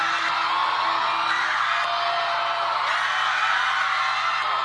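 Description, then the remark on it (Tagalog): A large crowd at UST in the Philippines shouts and cheers for Pope Francis during his 2015 visit, a dense roar of many voices with whoops rising above it, loud and sustained throughout. “Ako po yun, sumisigaw.”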